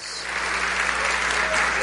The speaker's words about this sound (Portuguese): Salve de palmas.